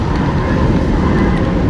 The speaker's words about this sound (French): Il y a comme une clameur qui arrive.